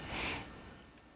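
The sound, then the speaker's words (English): A single breathy, rasping snore, a noisy rush of air strongest at the start and trailing off over about a second, with no voices. “It snores.”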